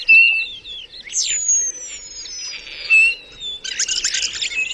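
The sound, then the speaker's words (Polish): A starling sings in a varied, continuous stream of whistles, slurred glides and rattling chatter, clear, with no voices present. “Ja chcę słuchać tego szpaka, bo śpiewa bardzo długo.”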